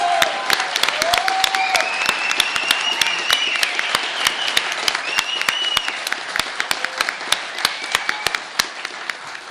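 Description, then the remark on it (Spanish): An audience in the Sala Julián Carrillo applauds steadily for a broadcast program's staff for the whole stretch, with dense overlapping claps and a few sharp ones standing out, plus occasional rising whistles over the clapping. No one speaks. “Pues un aplauso. A todos ellos, gracias, gracias, gracias.”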